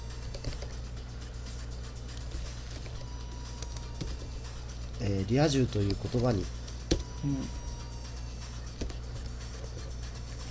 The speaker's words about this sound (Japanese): うん、えっ、とまあ俺俺のねあのタイピングの遅さが 今何やってるかとタイピングしてるんだね、これね